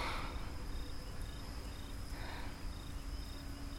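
A cold nighttime forest ambience during a camping weekend, where crickets chirp in a steady, repeating pulse over a low, constant rumble of background noise. No voices are heard.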